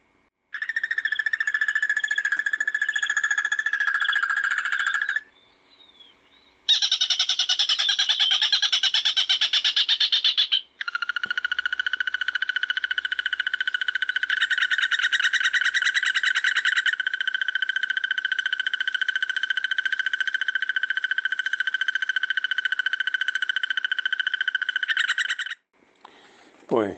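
A bird's long, sustained trill rings out loud, running unbroken for many seconds in three extended bouts separated by brief pauses, with no voices alongside.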